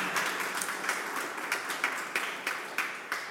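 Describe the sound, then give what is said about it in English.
An audience claps together in a steady, dense wash of applause for the current staff team at LMCC, with a few sharper claps standing out in a loose rhythm. It stays at a moderate, even level throughout, with no talking. “Um, so if you just clap for them, and then I'll tell you who I'm celebrating.”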